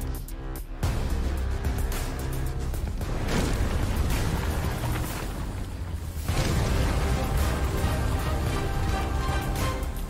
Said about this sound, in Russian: Это у нас э, взрывается мир.